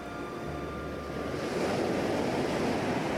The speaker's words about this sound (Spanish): Ah, era solo un ventarrón.